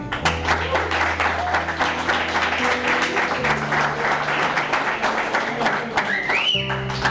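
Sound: warm applause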